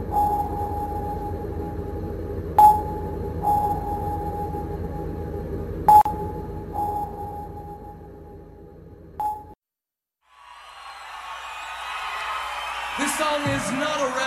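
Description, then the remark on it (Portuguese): Sonar pinging: three sharp pings roughly every three seconds, each trailed by a fainter echo ping, over a steady mid-pitched tone and low rumble, before a brief silence and a burst of noisy sound. “E fica com o som agoniante do sonar aí.”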